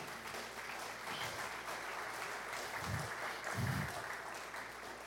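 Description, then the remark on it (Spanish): An audience at a sermon applauds steadily for several seconds, a dense wash of clapping that stays even throughout, with a couple of low thumps or voices rising briefly near the end. “Pueden aplaudir, se vale.”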